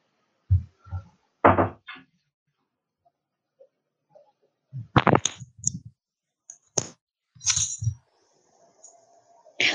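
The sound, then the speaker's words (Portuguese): A door being opened: a series of sharp latch clicks and dull thumps in irregular bursts, with quiet gaps between, and a faint rattle near the end. “Pera, pera rapidinho, deixa eu abrir a porta aqui.”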